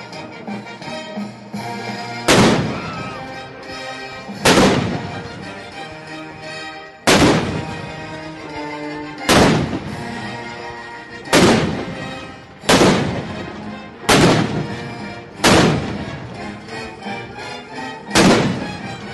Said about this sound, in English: That was a live recording of his 1812 overture by the Japanese Army, complete with real howitzer cannons